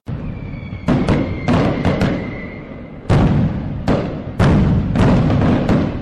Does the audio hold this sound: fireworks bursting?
yes